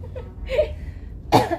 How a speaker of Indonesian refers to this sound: Aduh, sampai batuk pemirsa.